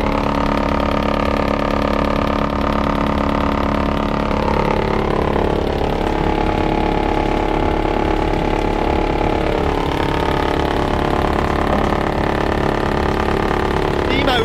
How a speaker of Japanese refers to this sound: 回ったのがスクリーン、はい、選別機ですね、これがまあ大体10 15センチぐらいの4メーターの杉、はい、杉の丸太